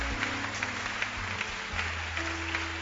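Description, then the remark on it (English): A crowd claps steadily in a loose rhythm, the dense patter pulsing with regular accents, while sustained low keyboard or organ notes hum underneath. No one speaks. “So as you are clapping, then also clap for yourself.”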